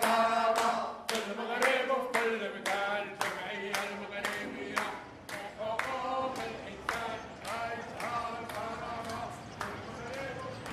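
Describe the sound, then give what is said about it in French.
A crowd of about fifty laid-off workers protesting in front of the Grand Casablanca prefecture claps hands in steady unison, sharp claps about every half second, loud, with many voices chanting together beneath the beat throughout. “Il y a une cinquantaine de, licenciés qui tapent dans leurs mains et qui manifestent.”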